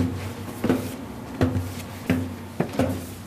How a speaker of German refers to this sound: Wir hören einen Schlag und wir haben auch noch so was Federndes gehört. Es ist also hier noch ein altes mechanisches Uhrwerk, das mit Seilzug die Hämmer bedient.